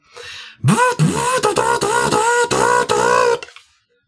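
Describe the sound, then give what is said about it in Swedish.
A small printer whirs to life with a rising mechanical tone, then buzzes through several rhythmic, whining print passes for about three seconds, fairly loud before stopping abruptly. “Du hör min lilla skrivare gå igång igen.”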